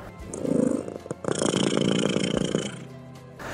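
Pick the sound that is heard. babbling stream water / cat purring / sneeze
cat purring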